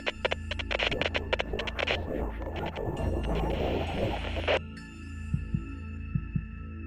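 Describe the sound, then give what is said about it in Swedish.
A pilot's heavy, pounding heartbeat thumps steadily in the low end, partly buried under bursts of crackling radio static and hiss before continuing alone as clear, deep beats near the end. “Hjärtat bultar hårt i bröstet samtidigt som piloten försöker behålla kontroll över situationen.”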